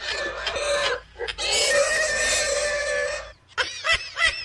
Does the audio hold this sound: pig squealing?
yes